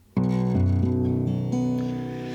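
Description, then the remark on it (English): Low, ringing chords on a baritone guitar, several changes in quick succession with each strum sustaining into the next, deep and bass-like, fairly loud with no voices. “so you hear it's a lot of lot lower, and it sounds more like a bass.”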